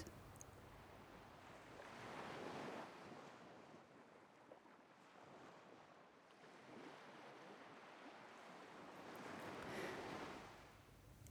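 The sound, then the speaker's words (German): Ocean waves rush in broad, swelling surges, building around two and ten seconds and easing between, with a steady hiss of surf filling the background and no voices. “Jetzt stehst du auf und schlenderst langsam von der Veranda hinunter und in die Richtung, aus der du das Meer rauschen hörst.”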